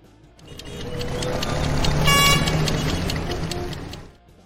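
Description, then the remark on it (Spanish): A short burst of busy street traffic swells up and fades away, with a car horn honking loudly in the middle over the steady rumble of engines. “Bueno, vamos a, vamos lo próximo, oye, a ver cómo están las condiciones del tránsito.”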